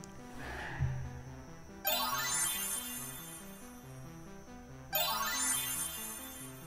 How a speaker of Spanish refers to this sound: ¿Ustedes escucharon eso? Yo espero que sí. Eso fue un carro.